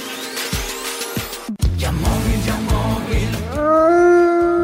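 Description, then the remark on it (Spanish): A wolf howl rises and holds loud near the end, following a sweeping whoosh, a sudden break, and a stretch of pulsing, busy background sound. No one speaks. “Ya estamos en Halloween y los lobos acechan.”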